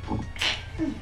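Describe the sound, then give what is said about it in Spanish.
A single sneeze: a short voiced intake, then a sharp, hissy burst of breath, trailing into a brief low vocal murmur afterward. “Salud.”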